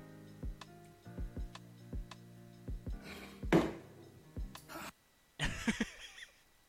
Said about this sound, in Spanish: No, y los eructos son épicos, ¿eh? Dale, dale, eructa. Qué bueno tú.